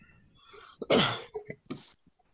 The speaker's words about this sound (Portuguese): Foi Uma tosse.